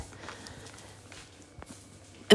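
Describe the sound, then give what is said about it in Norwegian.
A soft, steady hiss of water running through household pipes in an upstairs bathroom, with a low hum underneath, a few faint knocks, then a sudden louder thump right at the end. No one speaks. “Beklager at det er litt sånn susing bak her.”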